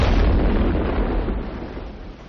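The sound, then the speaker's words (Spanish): A heavy blank salvo fired from the war cruiser Aurora as the signal to storm the provisional government's palace opens abruptly and rolls into a deep, rumbling boom that fades slowly over a couple of seconds, loud and with no voices. “El crucero de guerra Aurora efectúa un disparo de salva”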